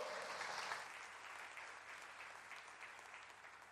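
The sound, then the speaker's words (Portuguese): A crowd applauds the Lord steadily, a dense wash of many hands clapping at once that holds at an even level for a few seconds, tapering only slightly toward the end. “Vocês podem aplaudir o Senhor por isso, que é uma revolução.”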